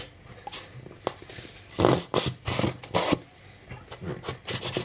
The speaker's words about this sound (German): meiner leider so gut wie komplett leeren Dose, Tube, Remoulade, die ich gerade versuche auf meine Fischstäbchen zu verteilen. Das finde ich scheiße, weil Fischstäben ohne Remoulade eben auch genau so schmecken, nämlich scheiße. Klingt aber lustig.